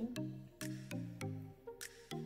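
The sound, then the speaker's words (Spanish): Water splashes up against a face again and again as the product is rinsed off with plenty of water, a quick rhythmic series of wet slaps and drips, with no talking. “retiramos el producto. Y use mucha agua.”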